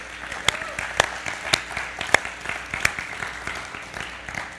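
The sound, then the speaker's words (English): An audience applauds on Father's Day to show appreciation for dads and father figures, a dense patter of many hands clapping steadily for several seconds, with a few sharper, louder claps standing out above the crowd. “Give him an elbow or a round of applause, one of the two.”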